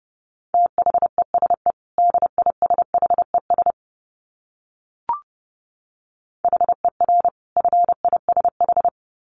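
Fast Morse code at 30 words per minute in a steady mid-pitched tone, rapid dits and dahs in two bursts, a brief click in the silent pause, then another quick run of keyed beeps. No voices.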